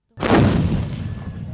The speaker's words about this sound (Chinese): 阿生回忆说，某一次他们在树林里被攻击，在树林里 看不到对方，只听得到咻咻的枪声。